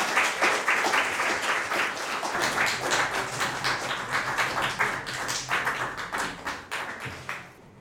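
An audience breaks into steady applause, a dense wash of many hands clapping at once that carries on for several seconds before thinning out toward the end.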